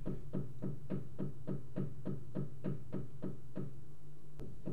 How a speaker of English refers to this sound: Yeah, if I if I start talking, she'll knock